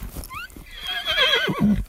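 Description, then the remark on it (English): A mare whinnies while riders push Black Angus cows toward corrals at the bottom of a steep ravine: a loud, quavering call that wobbles and slides downward over about two seconds, ending in a low snort, with faint hoof thuds at the start. “Good mare. Good mare. Come on, sweet mare.”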